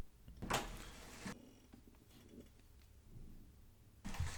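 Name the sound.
door opening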